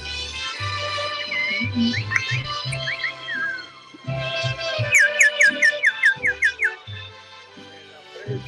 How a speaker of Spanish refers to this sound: los pajaritos del fondo me encantan.